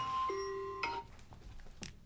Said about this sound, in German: Hat man das gehört? Mein Wecker ging los.